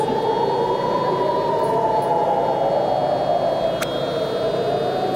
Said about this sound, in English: I'm doing it just to get the siren in the background.